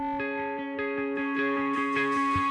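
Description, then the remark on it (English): Squeaky, warbling guitar effects-pedal noises from a pedal left on, at the beginning of a song, ring out over a steady drone, pulsing in a quick rhythm and brightening toward the end, with no voices present. “And this is heavily featured on this song, just all those like squeaky things that happen. That's just me leaving on this pedal and letting it do what it does.”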